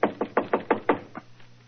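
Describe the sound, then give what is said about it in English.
A quick series of about seven firm knocks on a shop door, evenly spaced and fading slightly at the end, with no voices. “So, just to please you, I will knock on the door.”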